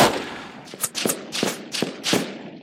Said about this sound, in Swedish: och sekunden efter så bara exploderar omgivningen av liksom, kulsprutor, knatter och, och kalasjnikov-smällar.